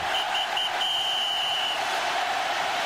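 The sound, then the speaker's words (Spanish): A referee's final whistle at a football match in which Real Madrid wins the league blows three short blasts and then one long sustained blast, shrill and clear above the steady roar of a large stadium crowd. “El pitido final provocó el delirio en las gradas y en el terreno de juego.”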